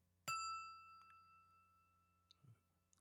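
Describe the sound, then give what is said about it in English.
A ceramic Clase Azul tequila bottle of the older design is struck once, giving a bright ringing tone with several clear overtones that decay slowly over a few seconds, with a couple of faint taps and a low hum underneath. “But, anyways, this is the sound of the first bottle.”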